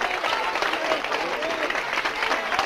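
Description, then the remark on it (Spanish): A group of young people with Spanish flags, standing, applauds Madrid president Isabel Díaz Ayuso as she is named, with dense, continuous clapping from many hands filling the whole moment, loud, with faint voices mixed in beneath. “Pues Acaban de nombrar a Isabel Díaz Ayuso y aquí hay un grupo de jóvenes con banderas de España que está aplaudiendo a la presidenta madrileña.”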